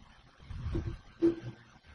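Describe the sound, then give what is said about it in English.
A garbled, broken-up voice cutting in and out as if over a bad phone line, with low muffled bursts and a brief electronic tone, fairly quiet throughout. “Sounds like he's talking Morse code.”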